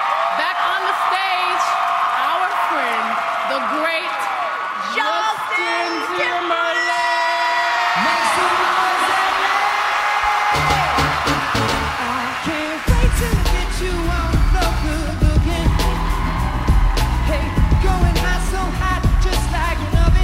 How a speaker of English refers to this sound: a recent live performance from the Grammy Awards telecast in Los Angeles.